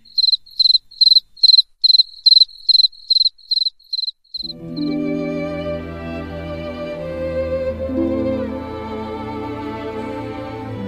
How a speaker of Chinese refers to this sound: 台湾诗人外先生说，在海外，夜间听到蟋蟀叫，就会以为那是在四川乡下听到的那一只。